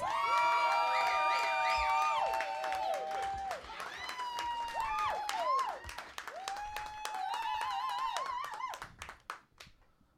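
A crowd at a comedy show applauds loudly as a comedian is introduced, with steady clapping, shrill whistles and cheers over the top, sustained for several seconds before thinning out and fading near the end.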